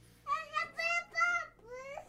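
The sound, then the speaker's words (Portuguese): A baby babbles and fusses in a few short, high-pitched bursts of vocalizing, fairly loud, with brief pauses between cries and no adult talking over them. “Calma, bebê.”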